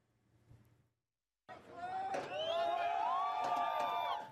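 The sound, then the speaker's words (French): Many residents of Rostov cheer and shout as Wagner group forces leave the city, many voices overlapping in a sustained roar that bursts in suddenly after a faint, brief murmur and a moment of silence. “sous les acclamations de nombreux habitants, les forces du groupe Wagner quittent Rostov, pratiquement 24 heures après être entrées sur le territoire.”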